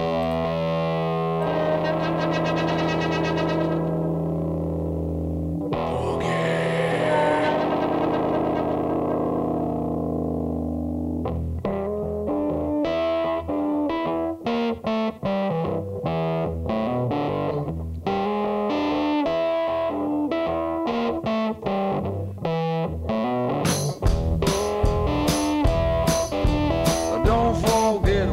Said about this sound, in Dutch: En het nummer wat u gaan horen is een boogie.